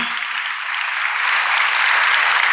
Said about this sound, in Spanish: ¿Cuántos pueden darle gloria al Señor esta tarde por eso? Denle un aplauso fuerte al Señor, por favor.